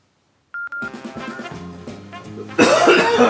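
coughing

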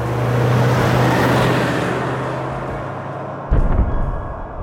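car driving past

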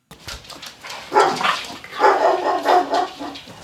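dog barking

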